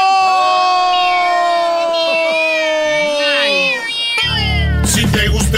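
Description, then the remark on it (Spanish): Several kittens meow together in loud, overlapping, high-pitched mews for about four seconds, then a sudden noisy burst like a cheering crowd takes over. “Apenas se pasaron empatando, para mí va a ser duelo de gatitos.”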